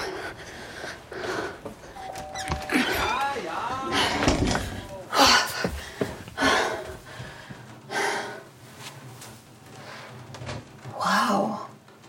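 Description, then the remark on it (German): A stuck door is rattled and banged several times in loud bursts, with gasps and heavy breathing in between. “Oh, oh, nee, jetzt klemmt die Tür.”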